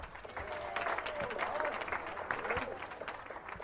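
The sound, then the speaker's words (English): An audience claps steadily for a few seconds, a dense patter of many hands at a fairly even loudness, with some murmuring voices mixed in, applauding in answer to a question about attending live narrated performing art events. “If you have not gone to a live narrated performing art event, please applaud now.”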